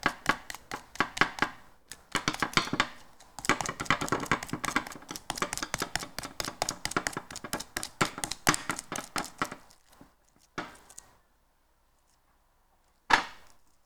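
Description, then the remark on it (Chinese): Rapid, repeated scraping and scratching against a glass bowl while cleaning it, a dense run of sharp gritty strokes for about ten seconds, then silence broken by two brief final scrapes. No one speaks. “听了会有一点不舒服，不舒服的人可以往后跳，因为我这是在清我的玻璃碗。”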